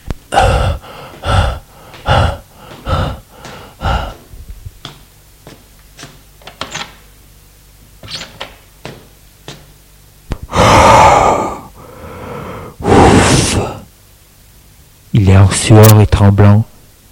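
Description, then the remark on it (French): Heavy, out-of-breath panting of a man arriving at his parents' house: a quick run of about seven sharp breaths, a few quiet clicks, then two long, loud exhalations, ending in a voiced, groaning gasp. “Il Arrive à la maison de ses parents tout essoufflé.”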